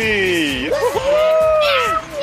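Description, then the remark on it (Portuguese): A person imitates a cat with one long, drawn-out meow, loud, its pitch wavering up and down before trailing off, with no other sounds around it. “ficou horrorizado com o meu miau.”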